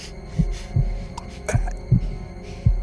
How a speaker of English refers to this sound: But for many minutes, his heart beat on with a muffled sound. This, however, didn't vex me. It would not be heard through the wall.